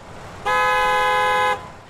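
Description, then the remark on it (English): A single loud, long car horn blast in heavy traffic holds steady for about a second over a low background rumble of traffic, then cuts off abruptly. “Noise pollution can be rather difficult to live with, whether it's noisy neighbours or heavy traffic.”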